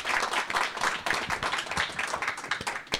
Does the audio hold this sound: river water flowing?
no